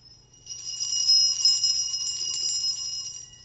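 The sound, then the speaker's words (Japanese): Bright metallic chiming from a hanging instrument of dangling screws and bolts, played in an office, a shimmering cluster of high tinkling tones that starts abruptly and rings on steadily for about three seconds, fairly loud, with no voices. “これはね、実はね、ネジとかボルタがぶら下がってるんですよ。ちょっと音が違いますよね。”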